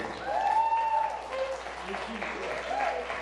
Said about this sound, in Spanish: Un aplauso, por favor